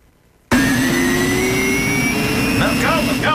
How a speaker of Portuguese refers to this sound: é um avião que ainda por cima aparece de forma abrupta